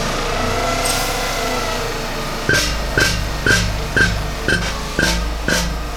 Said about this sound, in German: So, dann äh, werfen wir mal den Bohrer an oder ihr besser gesagt.